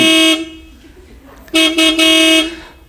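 A car horn blares in loud honks: one short blast, a pause, then a cluster of longer toots in quick succession before it cuts off.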